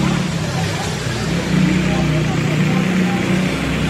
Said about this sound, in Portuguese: Agora acaba de chegar ali duas motocicletas do trânsito, né? A pessoa já estacionou ali